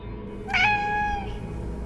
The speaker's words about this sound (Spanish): Me desperté alrededor de las nueve de la noche por culpa de los maullidos